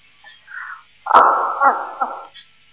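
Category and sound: signal or alarm, firecrackers being set off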